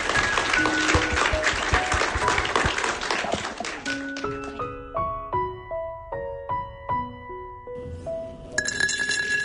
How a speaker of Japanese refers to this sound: 今一度皆様に大きな拍手をお願いいたします